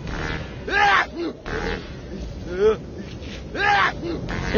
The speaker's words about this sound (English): One last time, the wolf began to sneeze and sneeze.